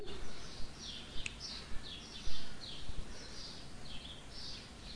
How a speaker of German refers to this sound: Und ich hoffe, ihr könnt die Vögel im Hintergrund fröhlich zwitschern hören.